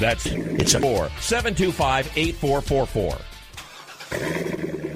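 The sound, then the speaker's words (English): A man speaks briskly, then a loud Corvette sports car engine cuts in near the end, rumbling and revving with a throaty, steady roar. “That's the sound of America's only sports car.”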